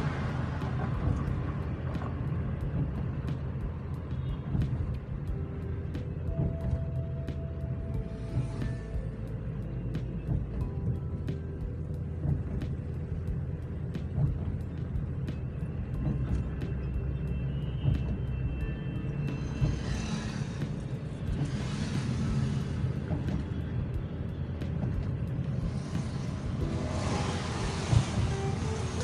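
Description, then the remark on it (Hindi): Steady road traffic on Jhalawar Road in Kota rumbles past, somewhat lighter than usual, a low continuous engine drone with vehicles swelling and fading, several louder passes hissing by toward the end. No one speaks. “थोड़ा रश देखने के लिए मिल रहा है झालावाड़ रोड पे जैसा हमेशा रहता है रश उसकी तुलना में थोड़ा कम है लेकिन रश है लॉकडाउन की तरह नहीं है”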